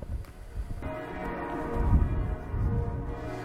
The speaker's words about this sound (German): So, jetzt kann man die Kirchenglocken sehr gut hören. Ich finde, das ist ein sehr schönes Zeichen der kirchlichen Gemeinde hier.